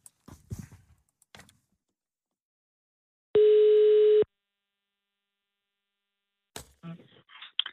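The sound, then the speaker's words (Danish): A single steady telephone ringback tone, one loud flat beep lasting about a second, heard while placing a call, with brief handling clicks and rustles before and after. “vil du ikke lige ringe til Kim C?”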